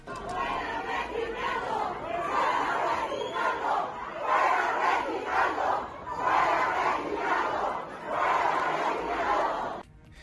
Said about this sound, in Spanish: Alrededor de 200 trabajadores de la Cámara de Diputados ingresaron por la fuerza al salón de sesiones en protesta